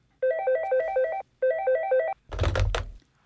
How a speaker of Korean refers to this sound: 그리고 그날 저녁 엄마의 휴대전화가 울리더랍니다.